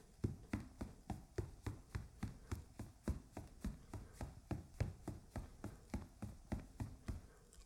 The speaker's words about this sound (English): Standing in the center of the dirt riding arena, the three of us clearly heard the sound of footsteps.